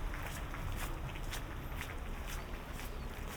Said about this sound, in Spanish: Estamos nosotros andando un carril de bajada, otro carril de subida y luego las bicicletas.